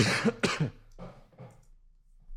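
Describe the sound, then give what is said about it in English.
A person gives two sharp coughs in quick succession, followed by a couple of softer, breathier coughs trailing off, with no talking. “I dropped the box and I coughed.”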